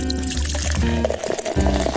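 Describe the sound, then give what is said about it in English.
Liquid pours steadily into a glass, a bubbling, gurgling stream that rises slightly in pitch as it fills, fairly loud with no voices. “So kick your feet up, pour your favorite drink”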